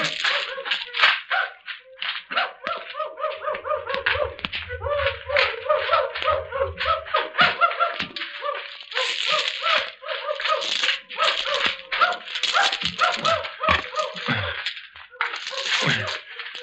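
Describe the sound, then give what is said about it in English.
A pack of dogs trailing people in pursuit barks and yelps nonstop in overlapping, excited bursts, loud, with a low rumble underneath for a few seconds partway through. “Horses, chickens, and now dogs.”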